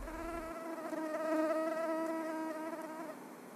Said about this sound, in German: Darin hunderte kleine Anopheles-Mücken.